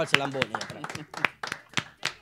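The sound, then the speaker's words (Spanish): Hands clapping in a steady rhythm, about seven sharp claps from a small group rather than a full crowd, with someone talking over the first part. “Un aplauso para Wikintante que escucha típico G, todo Aplaudan ustedes”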